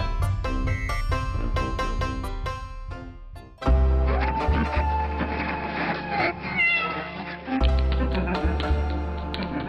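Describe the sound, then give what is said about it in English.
A cat meows repeatedly over a loud, dense backing of music with heavy bass, the meow-like cries weaving through the instruments rather than standing alone. “It's probably the neighbor's cat, but could it be a cub?”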